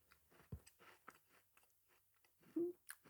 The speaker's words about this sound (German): Ich Glaube nicht, dass unsere, unsere Hörer das toll finden, wenn man die ganze Zeit ins Mikrofon kaut.